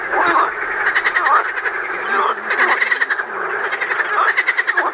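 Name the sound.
frogs croaking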